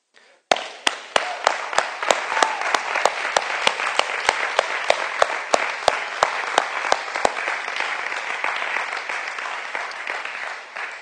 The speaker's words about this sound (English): And uh, if we could take a moment, I don't do this a lot, but if we could take a moment, not to, I want to thank the guys, but I want to, I want to clap for God.